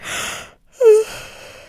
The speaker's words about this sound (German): Ich muss kurz gähnen.